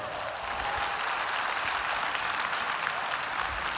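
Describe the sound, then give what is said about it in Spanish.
Sustained applause from an audience, a dense, steady wash of many hands clapping at an even loudness for the full few seconds, with no voices standing out. “Un aplauso ahí, por favor.”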